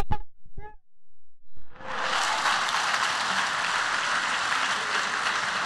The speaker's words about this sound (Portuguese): Forte essa aplauso.